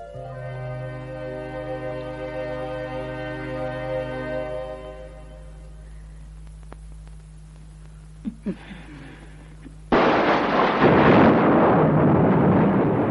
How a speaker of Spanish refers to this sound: Ana y Ángela se despiertan aturdidas por el ruido del trueno.